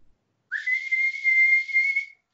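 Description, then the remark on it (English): A single loud, piercing whistle, made to call a dog (a hound) down from upstairs, swoops up briefly and then holds one steady high pitch for nearly two seconds, with no talking around it. “Uh, headphone warning: I'm going to do a pretty loud whistle.”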